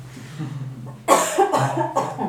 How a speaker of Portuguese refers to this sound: Deixa eu só né? tossir também.